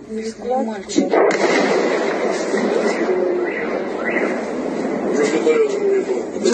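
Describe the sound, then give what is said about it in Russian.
A sudden explosion from a missile strike near the settlement of Uyutnoye on the western outskirts of Yevpatoria booms about a second in, followed by a long, rolling rumble that lingers; people's voices can be heard faintly talking underneath. “Позже в новостях сообщили, что взрыв произошел у населенного пункта «Уютное» возле западной окраины Евпатории.”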